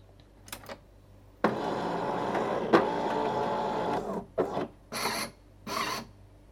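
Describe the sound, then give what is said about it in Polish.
An espresso machine is switched on, with the recorder standing fairly close to it; it starts up with a steady mechanical whir and rasp lasting a few seconds, followed by several shorter bursts of hissing, grinding noise separated by brief pauses. “Dobrze, urządzenie się uruchomiło.”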